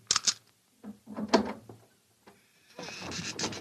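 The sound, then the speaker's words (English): A box being opened: two sharp clicks like a latch, then a wooden scrape and creak of the lid, followed by a steady rustling hiss; the box is empty except for a sheet of notepaper in the bottom. “Open that box.”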